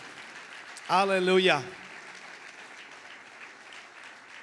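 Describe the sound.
Steady applause from an audience fills the whole stretch, a dense crackling patter at moderate volume, while a single voice cries out loudly over it for a moment near the start.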